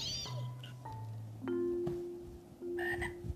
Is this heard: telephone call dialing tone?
no